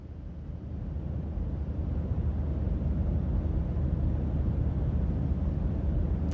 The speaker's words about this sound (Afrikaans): OK. Wat dink Tannie is dit? Vliegtuig, dis 100% reg.